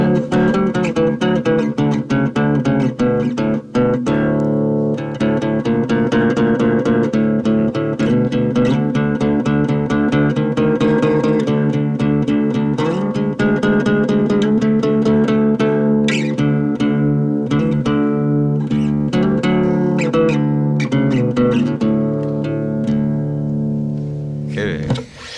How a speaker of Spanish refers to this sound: Tenemos dos minutos para una zapadita, algo, a ver cómo suena ese bajo.